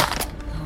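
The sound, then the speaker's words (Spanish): A phone hits the ground with a sharp crash, a short, bright smashing impact followed by a brief scattering rattle that quickly fades, with no voices. “se hizo bosta el celular.”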